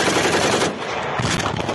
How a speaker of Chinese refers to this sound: 俄军无人机坠落，瞬间起火爆炸。